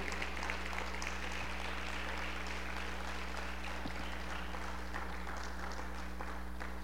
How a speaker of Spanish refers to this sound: ¿Cuántos pueden aplaudir al Señor esta tarde?